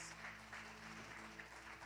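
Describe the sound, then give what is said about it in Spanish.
A church audience claps in praise to God during a sermon, steadily throughout, a dense, continuous patter of many hands at fairly soft volume, with a sustained low tone held underneath. “¿Alguien le quiere dar un aplauso a Dios?”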